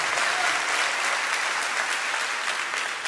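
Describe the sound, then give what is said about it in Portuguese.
An audience breaks into sustained applause, a dense, steady wash of many hands clapping at once, loud and even throughout with no talking over it. “Pode dar salva de palmas, pode dar glória a Deus, em nome de Jesus.”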